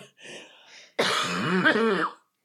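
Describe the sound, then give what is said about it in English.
A deliberate throat clearing: a soft breathy rasp, then a loud, gravelly voiced rumble lasting about a second before cutting off into silence. “Just sort of honk over there.”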